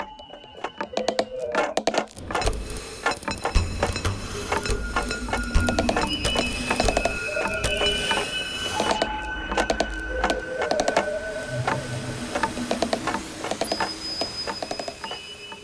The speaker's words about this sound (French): Nous écoutons en ce moment une création des élèves réalisée avec une dégauchisseuse, un maillet, un rabot, c'est-à-dire avec tous les outils du menuiserie.